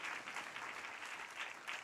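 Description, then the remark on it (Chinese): An audience claps to give glory to Jesus, many hands blending into a dense, even crackle that holds at a moderate level for a couple of seconds with no voices over it. “拍手，把荣耀归给他，好不好？”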